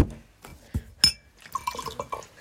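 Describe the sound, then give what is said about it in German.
A drink is poured from a bottle into a glass, with a few sharp splashes and drips at first, then a burbling, rising fill sound as the liquid keeps flowing. “Es ist leider ein bisschen sehr gesplashed.”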